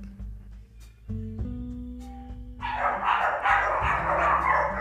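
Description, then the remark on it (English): A doorbell chime rings out, then several dogs break into loud, overlapping barking that carries on steadily to the end, with no one talking. “And that is the security team making sure that nothing is going to come to the door that they don't like.”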